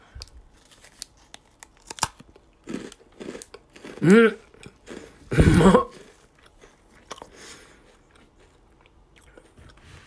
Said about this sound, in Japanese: それではね、早速じゃあ、えー、ハッピーターンプレミアムサワークリームオニオン味いただきます。